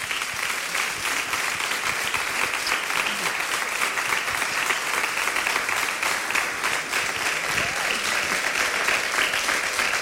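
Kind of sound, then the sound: crowd, audience applause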